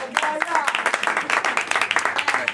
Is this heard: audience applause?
yes